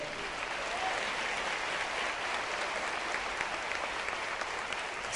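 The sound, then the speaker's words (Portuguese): A church audience applauds God steadily, a dense wash of many hands clapping at a constant level for several seconds, with no voices standing out above it. “Não há nada impossível, Senhor, e se você crê nisso, aplauda Ele.”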